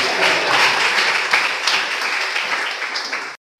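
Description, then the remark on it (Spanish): A crowd breaks into loud, sustained applause for Blessed Sor María Romero, a dense wash of many hands clapping together that holds steady for several seconds before cutting off abruptly. “queremos a la Beata, a quien le regalamos un fuerte aplauso.”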